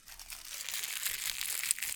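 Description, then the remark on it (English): Plastic being pulled out crinkles and crackles continuously for about two seconds, a bright, dense rustling with irregular crisp pops, fairly quiet and steady, with no voices over it. “She pulled out the the plastic and it was like,”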